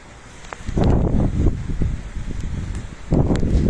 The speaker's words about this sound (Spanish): Parece que ya está calmadita la, la agüita, ¿no? Se está calmando la agüita. Está chipichipeando. Todavía sigue lloviendo, déjenme decirles.